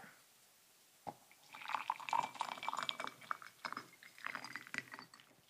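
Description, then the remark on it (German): Water being poured into a glass, a brief clink followed by a few seconds of bubbling, gurgling splashes with shifting pitch, quiet, no voices. “Ich habe, glaube ich, nicht mehr genug warmes Wasser für nochmal.”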